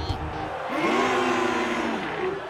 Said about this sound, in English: You know, I could get used to all this attention. Listen to that crowd. They love me.